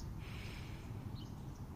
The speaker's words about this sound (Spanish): Cierra tus ojos. Calma tu respiración. Respira profundo por tu nariz.